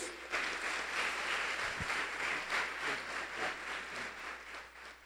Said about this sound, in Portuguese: Pode aplaudir Jesus.